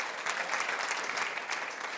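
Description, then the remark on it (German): An audience applauds for Jesus, steady dense clapping from many hands for the full two seconds, with no voices standing out above it. “Komm, lass uns Jesus mal einen Applaus geben für das, was er mit unserem Leben vorhat.”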